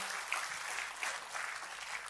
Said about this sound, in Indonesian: Kita kasih tepuk tangannya boleh paling meriah buat Tuhan kita.